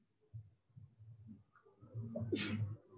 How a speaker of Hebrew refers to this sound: לבריאות.